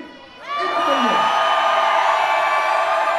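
After a brief quiet moment following a 3, 2, 1 countdown in a test of a noise contest, an audience erupts all at once into loud, sustained shouting and cheering, a dense roar of many voices that holds steady to the end.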